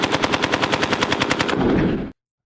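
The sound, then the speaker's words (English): A fast, continuous burst of fire from an MG42, a Nazi-era machine gun, loud, about a second and a half of rapid shots ripping out before an echoing tail cuts off abruptly. No voices. “Uh, I think we can get rid of the MG42.”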